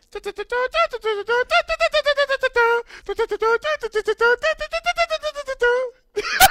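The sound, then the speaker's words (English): A voice imitates the musical 'Dixie' car horn from the Dukes of Hazzard. It sings a fast run of short, clipped, horn-like notes in a bouncing melody, alone, and ends with a brief breathy burst. “my question for you is: If you could customize your car horn, yes, what would you uh, what would you pick as the sound?”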